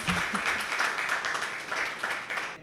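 An audience applauds for a speaker, a steady wash of many hands clapping together at an even, fairly loud level for a couple of seconds before it suddenly cuts off.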